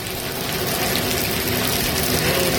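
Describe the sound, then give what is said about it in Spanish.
Heavy rain pours down in a dense, steady roar of hissing and pattering, loud, with no break for the whole moment and no voices, in the municipality of Corinto at about 10:15. “En este momento la lluvia fuerte, Leslie.”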